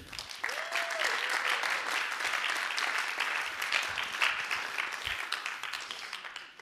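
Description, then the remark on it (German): A crowd bursts into sustained applause for a guest on stage, a dense wash of many hands clapping at steady volume for several seconds, with a brief whistle-like tone near the start. “Genau, und geben wir doch einen großen Applaus auf der Bühne”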